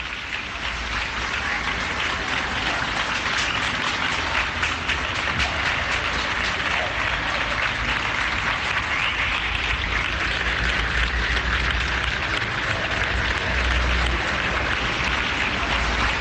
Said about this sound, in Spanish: Estamos escuchando los aplausos de la capital de Madrid y también de la capital de Andalucía. Nos llegan también los aplausos de Sevilla.